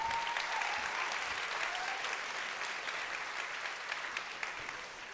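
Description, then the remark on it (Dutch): An audience claps steadily as one of the initiators of a teaching-material project is invited up. It is a dense, continuous patter of many hands that holds fairly even in loudness and eases off slightly toward the end, with no voices over it. “Een van de initiatiefnemers van f Applaus.”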